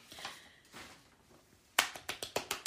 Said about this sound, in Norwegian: Ja, vi kunne godt klappe for det. Det fortjener en stor klapp, tenker jeg.